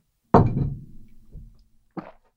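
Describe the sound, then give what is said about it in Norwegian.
Glasses of water clinking in a toast: a loud knock with a short ringing tail, a softer tap, then one more quick clink, with no voices. “Jeg feirer med vann! Skål! Hør nå, hør, hør. Skål.”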